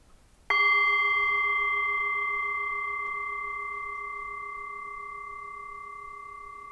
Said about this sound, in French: Et je vais vous proposer maintenant juste euh, avec vos oreilles et tout votre corps de suivre euh, le son du bol tibétain et de le suivre le plus longtemps possible